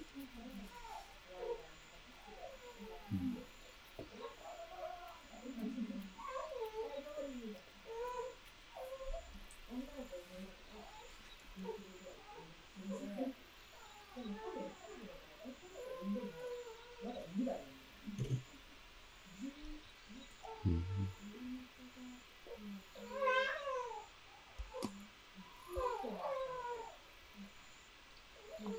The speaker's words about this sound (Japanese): この声も入ってます。子供の声、うん、あ、子供の声入ってます、入ってます。いいっすね、それが入ってんの。